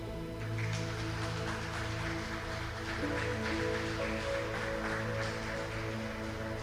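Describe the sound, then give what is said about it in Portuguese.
An audience applauding the Lord, a dense, steady wash of clapping that carries on for several seconds over sustained keyboard-like tones, with no one speaking. “Aplauda o Senhor.”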